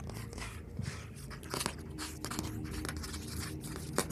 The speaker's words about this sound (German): Du, hast du das gehört? So ein Schaben auf ja, Papier. Das ist eine Truhe an der rechten Ecke, steht die. Und da hörst du dieses Kratel, Kratzen, Scharren. Kakerlaken. Da ist irgendwas drin.